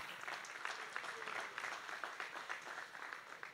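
A church audience applauds the Lord at a Christmas Sunday service, a steady dense wash of many hands clapping that stays fairly even in loudness throughout, with no voices standing out.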